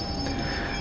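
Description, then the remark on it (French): A steam train, a locomotive followed by four wagons, grinds to a halt at the end of a tunnel. Its wheels let out a steady high-pitched metallic squeal over a dense rumbling roar, with no voices. “Sous les yeux médusés de Julien, c'est un train à vapeur qui s'arrête.”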